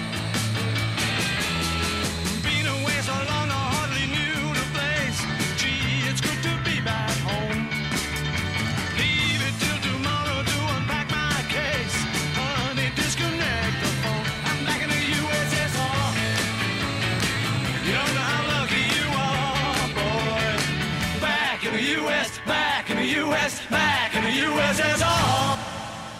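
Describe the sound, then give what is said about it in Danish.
A loud, driving rock song plays throughout, with a steady pounding beat, thick bass and bright, busy guitars and vocals filling the mix. No one talks over it. “Det er bare en god rocker.”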